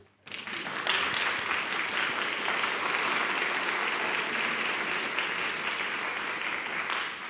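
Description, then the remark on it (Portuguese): A crowd of people applauding Jesus together, a dense, steady wash of clapping that starts abruptly and holds at a fairly even loudness throughout, with no talking over it. “Aplaude a Jesus.”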